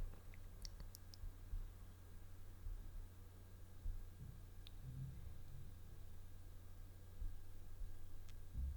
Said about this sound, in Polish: Y, tak, żeby Państwo mogli usłyszeć sam poziom szumu. Start.